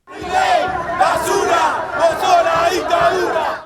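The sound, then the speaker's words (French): A large street protest crowd of voters chants in unison in December, many voices rising and falling in a steady rhythmic cadence, loud, with the massed shouting filling the whole stretch without pause. “C'est ainsi que l'on retrouve déjà en décembre une partie de son électorat dans la rue, désabusé par la tromperie.”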